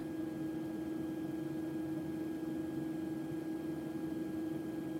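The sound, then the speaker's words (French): A steady, unbroken wash of white noise with a low droning hum running through it, the kind of sound system astronauts use in their sleeping quarters to make sleeping more pleasant, holding at an even, moderate level for the whole stretch with no voices. “On appelle ça un bruit blanc et on va te le faire entendre.”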